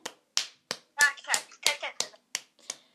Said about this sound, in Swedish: Eh, stor applåd.